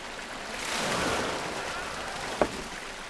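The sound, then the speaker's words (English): Water pours steadily over a farm spillway from a water storage pond, part of a farm water management system, a continuous rushing hiss that swells slightly midway, with one brief sharp knock near the end. “So you can see this one is a spillways.”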